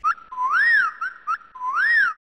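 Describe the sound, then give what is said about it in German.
A father whistles the family's signal call, the cheetah whistle, twice, each time a short chirp followed by a long note that swoops up and back down. Clear and loud, with no talking. “Der Papa pfeift schon den Gepardspfiff.”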